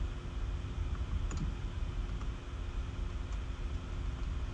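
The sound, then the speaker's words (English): A few light, scattered keyboard keystrokes click softly over a steady low hum, spaced irregularly rather than in a fast typing burst, as someone types a message into a chat. No one speaks. “Okay, I'm typing it in the chat.”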